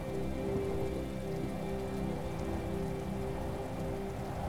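Steady rain patters on a hard surface, a continuous dense hiss of drops with a low rumbling undertone, even in loudness throughout, with no voices.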